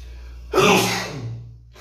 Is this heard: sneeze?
yes